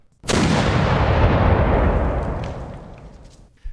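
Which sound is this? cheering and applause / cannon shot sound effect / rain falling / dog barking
cannon shot sound effect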